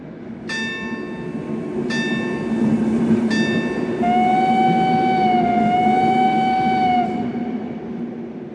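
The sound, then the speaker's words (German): A train rumbles steadily at a station while a bell rings three clear, evenly spaced strikes, followed by a long sustained tonal whistle over the low mechanical hum. No one speaks. “Als sie am nächsten Tag zum Bahnhof kamen”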